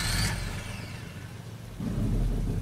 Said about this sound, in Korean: 그리고 와이가 소형 트럭의 바로 뒤까지 돌아간 순간 갑자기 트럭에 시동이 걸리는 소리가 났다.